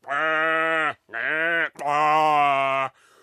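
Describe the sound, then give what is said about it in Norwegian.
Sheep in a barn give three loud, drawn-out bleats with a wavering, nasal tone, the last one longest, followed by a faint trailing sound. No talking. “så gikk jeg inn i fjøsen. Jeg gikk inn, og så sa jeg 'Sauene min, hør på meg!'”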